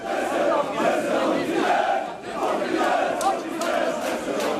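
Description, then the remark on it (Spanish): A large crowd at an airport screams and cheers continuously as someone arrives, a dense roar of many voices with rising and falling swells, loud, with no distinct speech. “Fíjense qué alaridos hacía la gente cuando llegaba Jesús al aeropuerto.”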